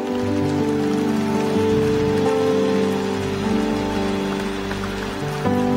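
An audience applauds loudly, a dense, steady wash of clapping that lasts the whole time, with sustained keyboard or organ chords holding underneath and no one speaking.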